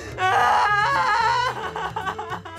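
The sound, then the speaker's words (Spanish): Several voices of a family wail and sob together in loud, drawn-out overlapping moans, rising and falling with no words spoken. “Sale … con su familia llorando.”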